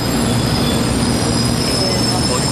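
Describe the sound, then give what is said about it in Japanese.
A Shinkansen train arrives at the platform of Shinagawa Station in Japan with a steady, loud mechanical roar and rumble, a faint high whine running over it, continuous throughout. “えー、早速早速ですが電車も来たので”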